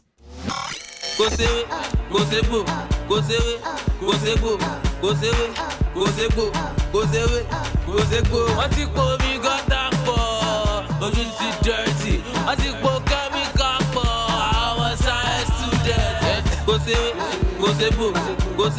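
Upbeat Nigerian pop song with a male voice singing in Yoruba over a driving, steady beat and bright synths, loud and continuous after a brief silent start.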